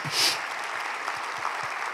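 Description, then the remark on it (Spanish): A church audience applauds for Jesus during a sermon, a dense wash of many hands clapping steadily for two seconds, with a brief louder swell at the start and no voices standing out. “Si usted lo cree, dele un aplauso a Jesús y dele gracias a Dios.”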